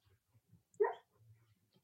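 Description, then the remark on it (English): A single soft, muffled woof from Luna, a sleeping female dog, short and breathy like a sleep bark, heard once amid quiet low rumbling, with no one speaking. “Dog, my dog's asleep. She's oh barking.”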